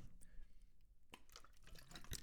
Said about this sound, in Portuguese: Peraí, vou beber água.